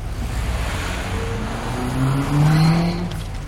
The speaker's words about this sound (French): Même le bruit des voitures sur le périph' qui passe au-dessus